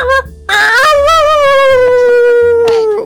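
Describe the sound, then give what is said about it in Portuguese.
A person imitates a dog with one long, loud vocal howl that wavers and slowly falls in pitch, with some rough, yelping breaks over about three seconds. “dentro do puteiro, o cara pagou pra ficar embaixo da cama latindo.”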